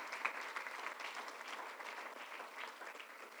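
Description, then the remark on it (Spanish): A church audience claps steadily throughout in applause to Christ, a dense, even wash of many hands applauding at a moderate level with no voices standing out. “Del otro fuerte aplauso a Cristo, hermanos.”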